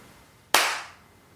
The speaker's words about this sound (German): Soll ich jetzt nochmal so klatschen, dass das fürs Schneiden einfacher ist?